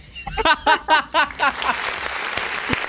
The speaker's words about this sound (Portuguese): sim, aplausos, aplausos, aplausos, né